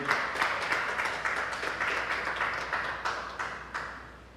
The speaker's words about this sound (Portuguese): Vamos aplaudir Jesus, vamos aplaudir o nome dele.